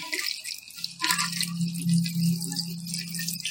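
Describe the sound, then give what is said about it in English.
A cocktail of vodka, orange juice and lemonade is poured back and forth between glasses at a tailgate, a continuous splashing stream with a steady ringing hum underneath, lasting several seconds with no one talking. “This is an old bartender trick. When you're at your tailgate, just pour it back and forth.”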